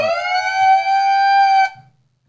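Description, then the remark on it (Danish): A loud electronic siren tone rises briefly and then holds a steady, buzzy pitch for about a second and a half before cutting off abruptly. The tinny sound comes from a toy microphone. “Øhm, det var sirenefunktionen på mikrofonen, det der.”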